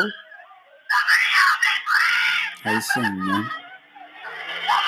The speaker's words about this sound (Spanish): Ok, en este video lo que se escucha es una cámara captó el audio de esta mujer gritando.